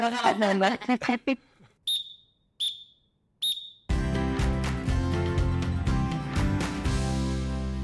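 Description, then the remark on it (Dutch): A voice speaks briefly, then a referee's whistle blows three short, shrill, high-pitched blasts in a steady rhythm before loud music starts. “Want eh, ik ga mijn fluitje blazen.”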